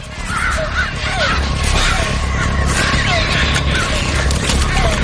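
Several crows caw harshly and repeatedly, their calls overlapping in a frantic, agitated flurry as they attack a woman stuck in mud, striking and pecking at her head, against a dense, rumbling background noise.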